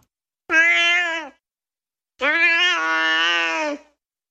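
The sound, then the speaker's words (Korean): A cat named Cheetah lets out two drawn-out, grumbling cries, a short one and then a longer, wavering one after a pause, as a couple lies in bed, with no talking. “아내와 나란히 침대에 누웠더니 뭐가 못마땅한지 야옹도 아니라 야으 같은 소리를 내며 울었다.”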